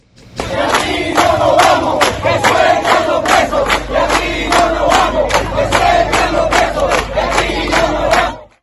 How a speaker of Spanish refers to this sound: Los comunitarios brevemente, a dos o tres segundos, pidiendo que se pusieran en libertad a estos dos dirigentes de la micro hidroeléctrica